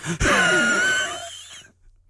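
A single long, forceful exhale onto a piece of paper, an insurance change form, a breathy hiss with a slightly raspy, wheezy edge that tapers off after about a second and a half, with no talking.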